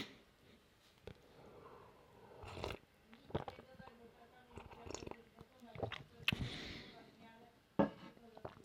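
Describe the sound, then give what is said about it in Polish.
Someone sips coffee, with soft slurps, swallows and small clicks of a cup spread across several quiet seconds, plus a sniff or breath in between. “tak, więc e, łyk kawy i zaczynamy.”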